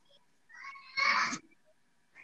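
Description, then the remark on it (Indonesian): A neighbour's child babbling in the background, one short run of voiced sounds that swells into a louder, strained burst before trailing off, with no other talk over it. “Itu anak siapa sih”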